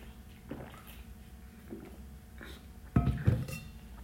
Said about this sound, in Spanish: Voy a tomar agua, esperen.